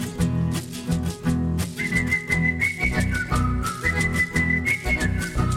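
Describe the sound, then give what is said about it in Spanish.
Someone whistles a short, clear melody that steps between a few pitches, starting partway in and carried over a steady, pulsing musical backing. “Le silbó la cancioncita con toda seguridad.”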